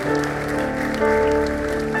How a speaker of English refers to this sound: Awesome. Give them another clap. That would be great. Thank you.